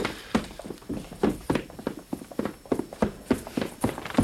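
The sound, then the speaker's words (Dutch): Quick, steady footsteps of someone running, a dense series of sharp thuds in a fast rhythm across the whole stretch, fairly loud, with no voices. “Waarom ren jij hier als een missogaas rond?”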